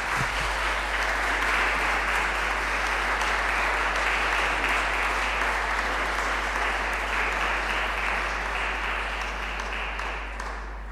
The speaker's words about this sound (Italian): Applausi.